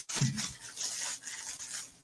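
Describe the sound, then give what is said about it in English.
Crinkly plastic wrap being peeled and torn off a Blu-ray case, a continuous crackling and rustling that lasts about two seconds with no voices. “You know, I'm going to I'm going to take the plastic off first before we uh, do the camera thing because, as you know, it's like shiny and you can see anything.”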